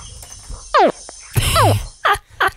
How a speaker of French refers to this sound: C'était un bébé crocodile.